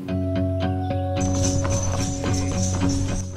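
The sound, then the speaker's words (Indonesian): A steady, rhythmic clip-clop of horse hooves pulling a garbage cart that goes around collecting rubbish on the island of Gili Terawangan, with a continuous musical tone running underneath and a busier clatter joining in halfway through. “Kami menggunakan bak sampah dengan kuda untuk berkeliling mengangkut sampah di pulau ini.”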